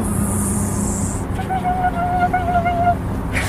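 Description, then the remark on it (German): A voice imitates birdsong with a thin, wavering whistle lasting a second or two, set against a steady low drone like traffic or buzzing; the person is imitating the birds and many insects of a small garden on a large meadow. “Das sind die Vögel und die vielen Insekten, die da sind.”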